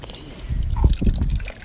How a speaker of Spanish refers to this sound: Pide, más agua. Ahí está el agua. Ahí. Acá. Ahí va.